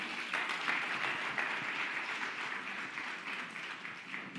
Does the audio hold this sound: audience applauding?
yes